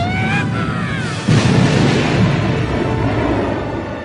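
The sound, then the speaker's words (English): A rising whine gives way to a sudden loud blast at about a second in, followed by a continuous roaring, crackling rumble of a chain reaction of internal explosions in the Death Star that slowly fades. No one speaks. “The blast started a chain reaction of internal explosions.”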